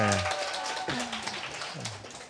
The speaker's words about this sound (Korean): 네. 또 박수 쳐 주시는데 오늘 그러게요. 네. 인색 인색하시네.